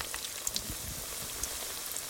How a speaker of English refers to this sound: we have our chicken breasts they're breaded they've soaked in buttermilk and hellmann's spicy mayonnaise and now we fry